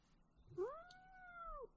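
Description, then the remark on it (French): A single drawn-out cat meow, rising then holding steady before dropping off, with a complaining, unhappy tone. It's fairly loud, with no talking. “Ah, donc là, vous avez entendu mon chat qui est pas content.”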